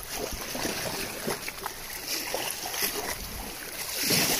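Sea water sloshes and splashes steadily at the sea, with irregular small bursts over a continuous watery wash that swells slightly louder toward the end.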